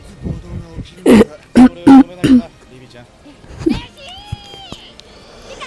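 Four loud, harsh coughs and throat-clearing bursts come in quick succession, close to the mic, followed by quieter vocal sounds and a brief sliding tone.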